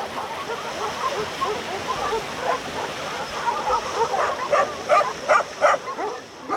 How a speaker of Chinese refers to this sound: 我有一次住在寺院，在睡觉之前，你就听见外边全是犬吠，根本就不可能下楼。